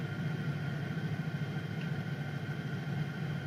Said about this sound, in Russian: я тут увидел, что машинка проезжает в одном месте, я просто стою в лесу и дальше не на дороге